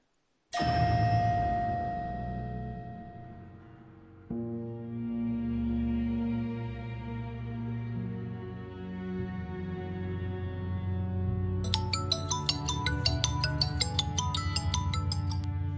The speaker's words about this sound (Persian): درینگ درینگ درینگ این صدای واتساپ تو گوشم میپیچه حس میکنم نفرین شدم و هیچ وقت از صداش خلاص نمیشم